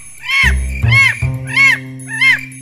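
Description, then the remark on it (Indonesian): A bird caws four times in a steady, evenly spaced series, each call loud, harsh and rising then falling, almost like cackling laughter, over a low background drone. “Suara tawa seekor burung mengagetkan Tarsi.”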